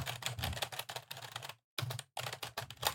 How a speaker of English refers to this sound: Well, you're typing like extra loud though, right? No, I'm not. You're not. No, I, I have one of those. Uh, it was actually your keyboard. Oh yes, yes. Um, it's it's like a high tactility, like springy keyboard, which I love.